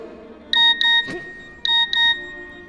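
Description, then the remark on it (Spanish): A phone's WhatsApp message alert sounds twice, each time a crisp pair of bright electronic beeps, loud, with a soft thump between the two alerts. “Me has mandado un WhatsApp teniéndome aquí al lado, chambelán.”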